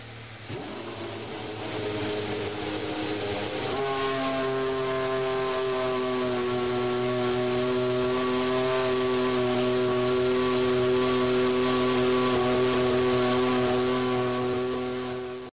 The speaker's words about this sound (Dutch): Je hebt hem al een paar keer eh, moeten doen deze week. Maar dit is toch ook wel weer even heel fijn om, eh, om te horen. De fire-up van de W12 van Mercedes.